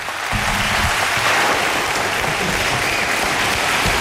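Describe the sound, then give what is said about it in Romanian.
A steady wash of applause from a crowd, dense and loud, continuing without pause for about four seconds with no voices standing out. “Pa, Aplauze pa, pentru pa.”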